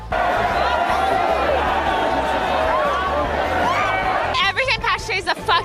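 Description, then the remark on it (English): Dense, loud crowd chatter from a rowdy St. Patrick's Day party at Laurier, many overlapping voices blending into a constant roar, with a few louder shouts and a break into closer talking near the end. “We're going to go into this crazy crowd of crazy people.”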